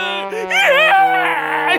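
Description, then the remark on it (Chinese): Loud, drawn-out crying from a single voice, a wavering wail that rises and falls in pitch for about two seconds, with a steady low hum underneath and no words. “我正在哭嘛！”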